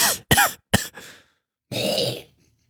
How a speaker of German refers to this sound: Ich kann ja heute eh nicht reden. Ich auch nicht. Oh, aber bitte huste am Mikro vorbei, ja? Wir wollen uns nicht bei dir anstecken.